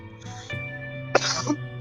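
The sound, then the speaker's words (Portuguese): A man coughs twice, first a short muffled cough and then a louder, harsher one about a second later, over a steady low background hum. “E ele acabou de tossir, mostrando qual é a principal característica do baby boom.”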